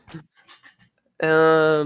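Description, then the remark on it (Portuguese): A dog lets out a loud, drawn-out bark, sustained like a yowl, following a few soft, muffled sounds that could be quiet voices or panting. “O cachorro ainda tá latino? Tá.”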